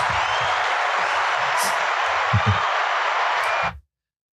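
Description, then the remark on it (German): A steady wash of applause from a crowd, dense and even at a constant loudness for nearly four seconds, with faint low thumps underneath, then it cuts off abruptly into silence. “Ich brauche jetzt, jetzt klatschen, das haben wir gestern vergessen.”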